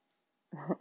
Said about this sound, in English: a new doggy growling at me